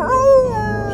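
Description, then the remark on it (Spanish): A wolf howls in one steady, drawn-out tone that wavers slightly in pitch, fairly loud, with no voices around it. “Le falta el lobo.”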